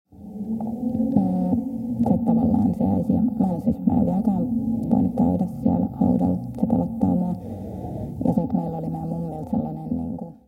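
Eerie, wavering howling drones on for about ten seconds, muffled and low-pitched, with sliding tones rising and falling over a dull background hum at a fairly steady level; faint howling in the background behind a storyteller's voice, its level raised by a sound technician.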